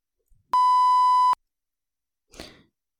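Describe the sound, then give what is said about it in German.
A single loud, steady censor bleep covering a person's name lasts just under a second, cutting in abruptly and stopping cleanly, followed after a pause by a short, soft breathy sound. “Ja, Pieps, Pieps, ja. Deinen Namen darf ich nicht sagen.”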